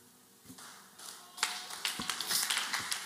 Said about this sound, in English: If you want to clap for Jesus, do it better. Come on, I said, if you are clapping for Jesus, do it better.